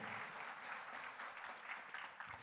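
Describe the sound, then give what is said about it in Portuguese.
An audience at a church sermon applauding for Jesus together, a steady, dense wash of clapping hands that holds at an even loudness throughout, with no voices standing out above it. “Aplauda Jesus vem força para ele.”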